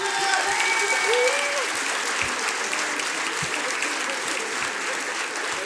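Steady, dense audience applause with many hands clapping at once, holding at a fairly even loudness throughout, with a few faint voices and a brief whistle-like tone mixed in early on.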